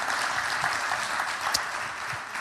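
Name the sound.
audience applause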